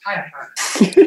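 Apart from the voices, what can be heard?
sneeze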